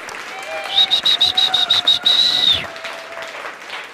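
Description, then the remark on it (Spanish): A crowd claps steadily while a shrill, piercing whistle cuts through in rapid repeated bursts, then holds a long high note before the clapping and cheering fade out. “Así que un fuerte aplauso con hurras.”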